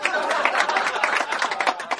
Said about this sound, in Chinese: 掌声鼓励，马上开说，开始啦。